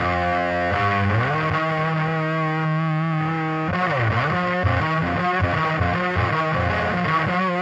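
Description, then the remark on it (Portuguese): The first track of an album: a heavy rock song blasts at full volume, thick distorted guitars grinding out sustained power chords over a steady driving beat, with a brief sliding bend midway and no talking over it. “vamos partir logo para a primeira faixa do álbum, …”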